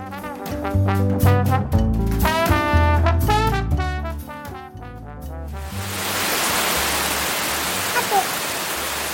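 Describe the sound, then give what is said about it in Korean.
A melodic, tonal passage gives way after about five seconds to heavy rain pouring down again: a dense, steady, hissing roar that continues to the end. “야, 지금 비 또 많이 오는데 너 괜찮냐?”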